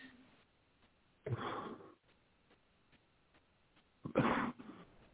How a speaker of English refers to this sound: As I said, forgive me for my coughing and the, the, the smoke is just horrible.